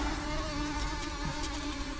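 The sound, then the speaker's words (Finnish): Steady, continuous buzzing of mosquitoes, a thin whining drone with a layered, wavering pitch that holds without pause, with no voices present. “Otetaan ne hyttyset vielä tuohon ennen merisäätä”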